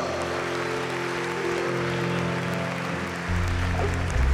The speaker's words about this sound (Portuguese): Outro aplauso ao Senhor.